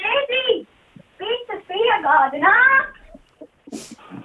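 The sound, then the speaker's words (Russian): Children whimper and whine in the background in several drawn-out, high-pitched bursts over about three seconds, fairly loud, then quieter murmurs and a short hiss follow. “один момент, мои дети.”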